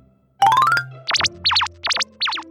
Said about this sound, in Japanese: 相変わらず僕にはピコピコ音にしか聞こえないけど本当にそんな軽いノリなのかにゃん